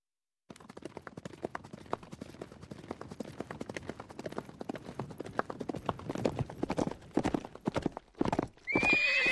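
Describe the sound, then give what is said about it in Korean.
A horse's hooves clip-clop in a steady, quickening rhythm, growing louder, before the horse lets out a high, loud whinny at the end, as the general Yeom Jun rides out on horseback. No one speaks. “집문을 열고 염준이 말을 타고 나와 크게 외쳤다.”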